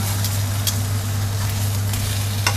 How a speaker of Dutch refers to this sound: Ik ga nu de kip een beetje laten garen.